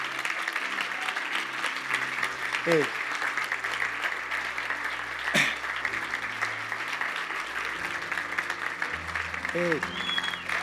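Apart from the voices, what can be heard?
audience clapping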